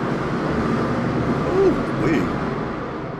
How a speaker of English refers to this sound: Sorry, there's a jet flying overhead